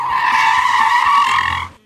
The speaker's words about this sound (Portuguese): Aí deu, ele deu uma freada, cara, brusca.